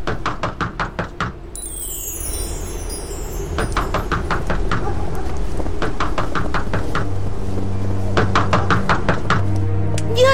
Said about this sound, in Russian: мы стучим, стучим, а нас не слышат